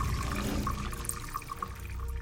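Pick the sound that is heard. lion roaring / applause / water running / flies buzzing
water running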